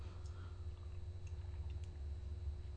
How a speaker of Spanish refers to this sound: ahora sí, ahora sí voy a tomar la cucharita para revolver este café que está todavía caliente, eso sí, amargo, sin una gota de azúcar como me gusta a mí y siempre, siempre necesario.